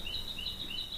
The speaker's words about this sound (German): Das ist die Amsel.